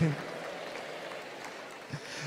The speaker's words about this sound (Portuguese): Dá uma salva de palmas para o Espírito Santo mais uma vez.